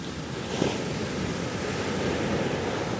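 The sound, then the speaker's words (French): Ocean waves roll and break onto a sandy shore on a sunny day in a steady, full wash of surf, with the soft rush of a light breeze mixed in and no voices. “Les vagues déferlent en rouleaux.”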